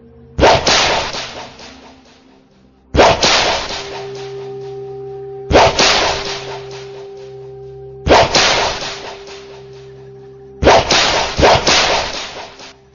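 Five sharp whip cracks as a woman lashes a person with a whip inside a temple, at steady intervals of a couple of seconds, each loud and snapping before a ringing tail fades. A low sustained hum runs underneath, and no one speaks.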